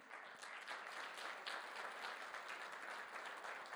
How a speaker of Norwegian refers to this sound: Men dere kan gi en applaus til de også.